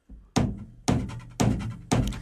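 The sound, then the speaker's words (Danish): A four-on-the-floor kick drum pattern: four loud, evenly spaced thumping beats at a steady mid tempo, each with a deep punch and a short ringing tail, with no voices. “Kalle, kan jeg få 4 i gulvet?”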